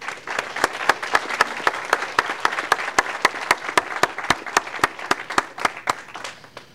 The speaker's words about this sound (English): And other than that, I want to thank everybody for being here. Let's give everybody a round of applause tonight.